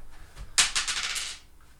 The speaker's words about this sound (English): Go ahead, roll the dice again. We'll try to go faster.